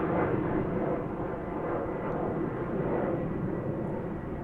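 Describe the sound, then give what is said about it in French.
A Concorde jet airplane roars steadily, a thick, rumbling wash of engine noise heavy in the low end, holding a constant loudness throughout with no voices. “Le, Concorde, ça vous faisait vibrer les intestins.”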